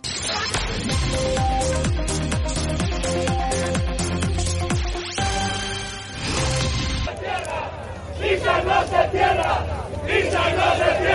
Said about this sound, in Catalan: És el so de Plaça Catalunya en flames. Ahir els treballadors de Nissan hi van fer una foguera on van cremar fotografies dels directius de la multinacional.